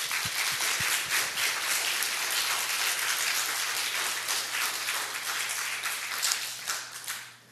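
An audience applauds steadily after special music in a church service, a dense wash of many hands clapping at an even level for several seconds before tapering off at the end, with a low steady hum underneath.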